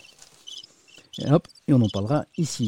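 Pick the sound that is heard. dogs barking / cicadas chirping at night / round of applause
cicadas chirping at night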